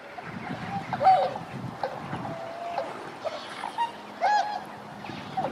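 Trumpeter swans calling with several nasal, horn-like honks at irregular intervals, moderately loud and a little distant, over a faint background murmur.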